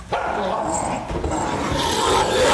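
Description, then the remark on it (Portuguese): Low, snarling growls from three chained wolves rumble continuously and fairly loud, mixed with scraping, metallic rattles of their chains, fastened to an iron rod at the base of a stalagmite, shifting about. “Rosnados selvagens e o som de correntes chocalhando chegam aos seus ouvidos, indicando onde três lobos estão acorrentados.”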